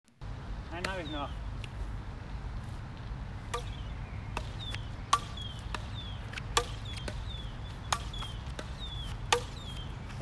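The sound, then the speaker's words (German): Crossminton balls, each with a small hole in the tip that the air whistles through, whistle through the air during a rally, each short rising or falling whistle paired with a sharp racket smack, repeating every second or so over a steady low background rumble. “Der hat vorne in der Spitze ein kleines Loch und durch das Loch pfeift der Wind durch im wahrsten Sinne des Wortes.”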